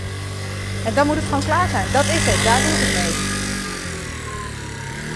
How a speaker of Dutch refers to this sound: Je hoort de eh, scooter langs rijden.